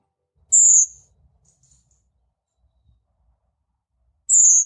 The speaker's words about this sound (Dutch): om te luisteren naar het verhaal achter het geluid van de koperwik